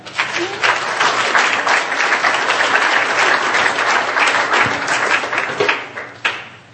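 An audience breaks into loud, dense applause for two invited guests, many hands clapping steadily for several seconds before it thins out and briefly swells again at the end.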